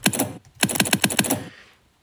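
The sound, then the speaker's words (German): Quick bursts of clicky keystrokes on a normal computer keyboard, editing text in the Windows text editor, two short runs of rapid typing separated by a brief pause, fairly loud, with no voices. “Mit der Taste F6 öffnet man den geschriebenen Text im Windows Editor und kann ihn dann mit der normalen Tastatur weiter bearbeiten und speichern.”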